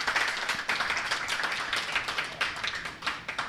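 crowd, audience clapping

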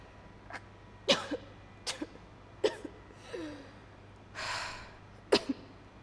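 human body sound, person vomiting

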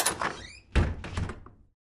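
household object, door being opened

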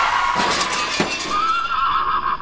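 animal, horse neighing

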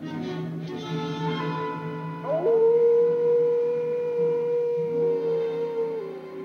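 animal, wolves howling at night

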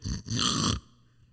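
human body sound, person snoring loudly

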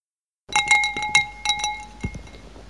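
household object, drinking glasses clinking

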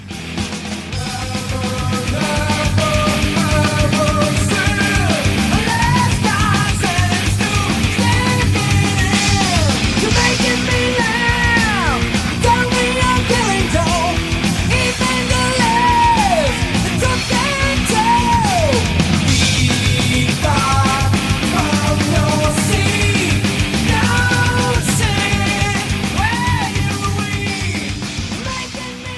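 a song being played

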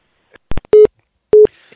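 signal or alarm, busy tone

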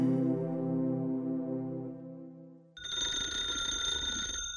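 signal or alarm, telephone bell ringing

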